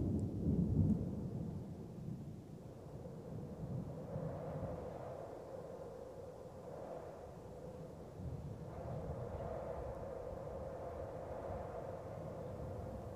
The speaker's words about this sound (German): Du bleibst stehen und der Sturm kommt näher Deine Haare wehen noch mehr im Wind, deine Klamotten wehen im Wind, die Gräser biegen sich fast bis zum Boden, die Bäume am Horizont neigen sich.